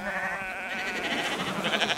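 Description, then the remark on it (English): A sheep on Wheaton's Island, Maine, lets out a long, wavering bleat that stretches across the whole moment, steady in loudness, with no voices alongside it. “Anyways, it used to be common to leave sheep on Maine islands, to grow 'em into mutton, and even though I couldn't stand Captain Red, that lion stealing, thieving son of a bitch, I appreciated that he put the sheep on Wheaton's Island.”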